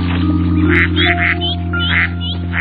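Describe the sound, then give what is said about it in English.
A tiny duckling in the Caillou cartoon gives several short, high-pitched quacks in quick succession, clear, over a steady low background hum. “Caillou was thrilled to be so close to such a tiny duckling.”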